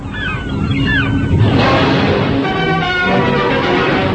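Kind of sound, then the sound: bird, birds calling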